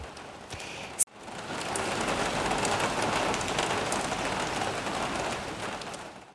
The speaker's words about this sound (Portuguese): Dizem os mais velhos que a chuva é sinal de que Umbela está a chorar.